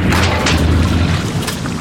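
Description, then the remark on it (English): A boat propeller strikes a really big rock while the boat is cruising along the intercoastal: a loud, continuous low rumble broken by several harsh, clattering impacts, with no talking. “hitting a really big rock. And now the sound of waves because the engine stopped.”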